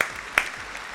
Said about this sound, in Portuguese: Queria dar uma salva de palmas para os envolvidos Boa. nessa treta maravilhosa.